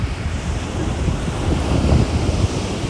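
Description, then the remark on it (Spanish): Ocean waves wash steadily onto the shore in a continuous, rushing roar, with a low rumble swelling slightly toward the end and wind blowing across the microphone. No voices are present. “Cierra tus ojos y solamente Permítete sentir este sonido de fluidez del mar,”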